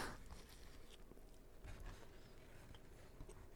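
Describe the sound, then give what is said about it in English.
Someone chews a dry burger, a steady run of soft, moist clicks and smacks with no talking, fairly quiet throughout. “It was going to be the lowest viewed episode because of us chewing.”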